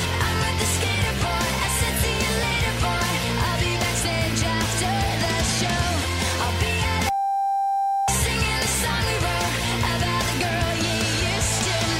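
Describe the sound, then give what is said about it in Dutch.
A song plays steadily, then about seven seconds in a loud, flat censor bleep cuts out one word of the lyrics for roughly one second before the track resumes, as a music quiz question. “Ik heb een woord weggebliept uit de tekst en het is aan jou om te raden over welk woord het gaat.”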